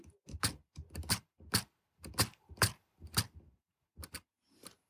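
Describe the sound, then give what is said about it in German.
A series of about a dozen sharp mechanical clicks from the navigation bar of a robustly built Papenmeier 40 braille display with loud modules, recorded with an iPhone, some coming in quick pairs at an uneven pace, with no voices. “So klingt der Navigationsbalken.”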